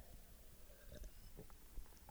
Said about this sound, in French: Une bonne gorgée d'eau.